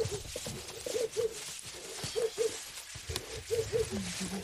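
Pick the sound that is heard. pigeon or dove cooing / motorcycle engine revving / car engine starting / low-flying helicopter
pigeon or dove cooing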